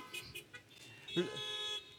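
A car horn blares in one steady, sustained honk lasting nearly a second, loud and close, after some brief muffled voice sounds at the start.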